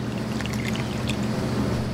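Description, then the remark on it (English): Two ounces of orange-flavored vodka pour steadily into a small jigger for a couple of seconds, a continuous liquid trickle with faint splashy flecks over a low background hum. No one speaks. “So, starting with our vodka, we're going to do two ounces of vodka.”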